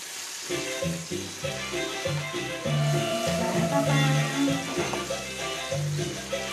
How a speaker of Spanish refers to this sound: Chirriante cebolla para comérsela con unas chuletitas y papitas cocidas que después van a ir al horno.